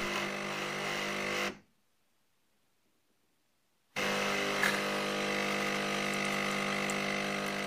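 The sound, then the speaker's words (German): A coffee machine brews with a steady, loud pumping drone, stops abruptly for a couple of seconds of silence, then resumes the same buzzing pump hum until the end. “dass das so der Kaffeemaschinen-Sound ist von deiner Kaffeemaschine”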